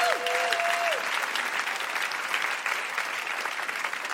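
An audience breaks into a sustained round of applause, dense and steady clapping that holds for several seconds, with a brief high tonal whistle-like sweep at the very start.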